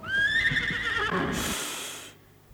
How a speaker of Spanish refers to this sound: ¿De quién es ese caballo que en el corral relinchó? Si ese caballo es muy tuyo, tu padre te lo mandó para que fueras a la boda de tu hermana la menor.